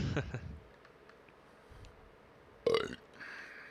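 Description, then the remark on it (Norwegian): A deep, throaty burp rumbles out at the start, followed by quiet and then a short, sharp burst of noise. It sounds fairly loud, with no one talking. “Nei, var på rapet, gitt.”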